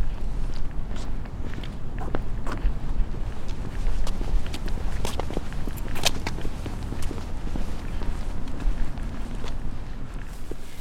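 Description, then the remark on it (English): Footsteps of people walking, a steady run of crisp, irregular steps over a constant low rumble of wind. No one speaks. “So let's walk and see what we see”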